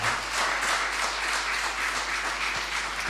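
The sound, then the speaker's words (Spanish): A crowd applauds steadily for the Lord after a Bible passage is read, many hands clapping in a dense, continuous patter that stays fairly loud and even throughout, with no clear voices on top. “Da un aplauso al Señor.”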